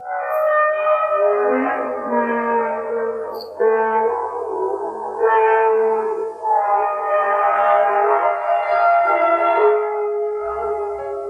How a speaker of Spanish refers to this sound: cuando un sonido metálico y muy fuerte penetró como un disparo en el ambiente tranquilo y silencioso de la montaña.